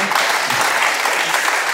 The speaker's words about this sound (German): Applaus für die Frage.